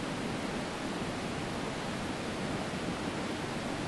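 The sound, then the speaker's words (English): Flowing water rushes steadily and evenly, a dense continuous wash of sound with no pauses or voices, moderately loud throughout. “So the tears just begin to flow like this water.”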